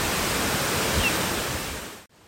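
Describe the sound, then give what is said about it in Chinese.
A dense, steady roar of a mountain-spring waterfall's rushing water with hissing spray and mist across the full range, holding level for about two seconds before cutting off abruptly into near silence. “希望我们今天的录音大家听得到，可以用这个来，呃，用听见来感受那个瀑布的那个水汽，可以喷发，借着我们的录音可以听到它喷发到你们的身上，然后深呼吸一口气哈。”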